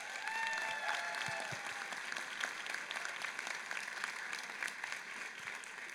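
A church audience applauds steadily, dense overlapping claps filling the whole stretch at an even level, with a faint whistle or cheer rising near the start.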